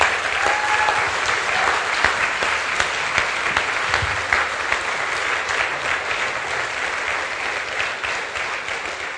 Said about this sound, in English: will you guys just honor him by giving him a round of applause?